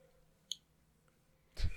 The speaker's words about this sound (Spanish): Das clic aquí, así, güey.